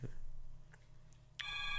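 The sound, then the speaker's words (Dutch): After a quiet stretch of low background hum, an electronic doorbell suddenly rings out near the end, a bright, steady buzzing tone that is fairly loud. “Oh, telefoon. Nee, nee, Deugbel.”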